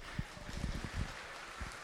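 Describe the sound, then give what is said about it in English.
A small audience claps for a volunteer, a steady patter of many hands blending into a soft, continuous wash of applause that stays fairly quiet throughout. “Oh, let's give them a clap.”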